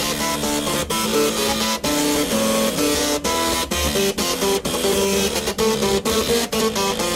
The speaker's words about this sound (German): Im Internet findet man Leute, die viel mehr Laufwerke brauchen. Das Stück von Bach zum Beispiel, wo man gerade gehört, das läuft auf acht Laufwerk. Der, der das gemacht hat, heißt …, findet er auf YouTube.